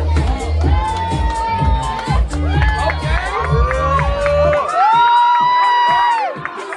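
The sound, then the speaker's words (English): A crowd cheers loudly and steadily after a host calls on them to make noise for a woman, with high, sliding whoops and shouted voices rising above dense, continuous noise for several seconds. “Make some noise for this queen one time. Make some noise for us.”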